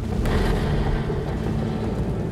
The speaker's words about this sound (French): Des explosions colossales retentissent dans tout Cap Canaveral. Les gens à 8 km de là sentent le sol trembler sous leurs pieds.